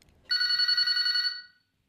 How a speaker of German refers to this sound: Das Telefonklingeln erlöst.